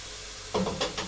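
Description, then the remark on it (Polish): Food frying in coconut oil in a pan: a steady soft hiss, then three quick scraping strokes of stirring in the second half. No one speaks. “Ale z olejem kokosowym to jest akurat niemożliwe. Zaraz dodamy wodę. Po prostu musi ładnie podsmażyć.”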